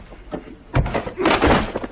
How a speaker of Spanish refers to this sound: Abre un cajón y lo tira al suelo.